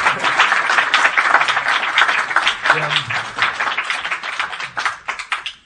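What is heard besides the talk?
applause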